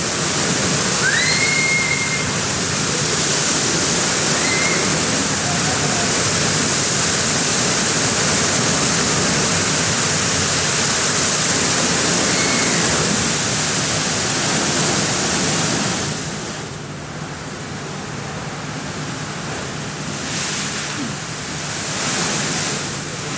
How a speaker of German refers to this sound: Es klang wahrscheinlich so ein bisschen wie einfach nur weißes Rauschen, was wir extern eingespielt ja.